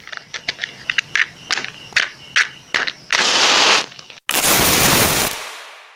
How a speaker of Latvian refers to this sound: Uzrāva sērkociņu. Kā zināms, sērkociņas taisa no koka.